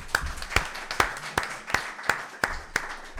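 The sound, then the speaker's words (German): An audience claps in steady unison, about eight sharp, evenly spaced claps at a moderate pace over a soft background wash of scattered clapping, with no talking. “Können wir ähm, Applaus ähm, haben?”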